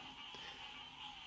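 A faint, steady chorus of frogs croaking in the South Carolina Low Country in summertime, a continuous high-pitched trill that holds evenly throughout with no voices present.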